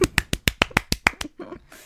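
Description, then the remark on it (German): A brisk burst of hand clapping, about eight sharp claps in a quick, steady rhythm, fairly loud, trailing off into softer rustling at the end. “Du kannst auch klatschen.”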